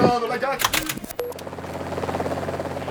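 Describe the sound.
A helicopter in flight over a solo, non-stop round-the-world race, its steady droning engine and rhythmic rotor thrum filling the background after a brief burst of voices and clatter at the start.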